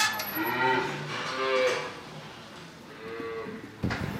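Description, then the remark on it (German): Several cows and calves moo back and forth in a barn as calves are brought back together with their mother cows, separated that morning for milking; overlapping low and higher-pitched calls repeat over a few seconds with a busy, reverberant background. “Hier kommt jetzt das Tageshighlight für viele der Kühe, denn die, die heute Morgen getrennt wurden, weil die Mutterkühe zum Melken gekommen sind, werden jetzt wieder zusammengebracht.”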